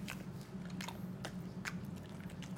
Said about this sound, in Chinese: 有点像地瓜条，怎么这么难嚼？ 我吃过更难嚼的， 嗯然后味道又有点肉的味道，像牛肉干的味道的气味。 它是它没有肉， 嗯， 它五香的。 啊，五香，怪不得叫五香牛肉干的味道。 我我都是整根放进去慢慢嚼，然后越嚼会越有味。